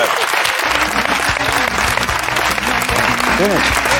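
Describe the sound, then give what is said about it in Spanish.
A crowd claps steadily and fairly loudly for several seconds, a dense wash of many hands, with some voices murmuring and calling out underneath. “Aplaudís todo, ¿eh?”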